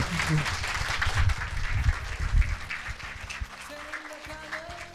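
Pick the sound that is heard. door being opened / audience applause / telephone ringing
audience applause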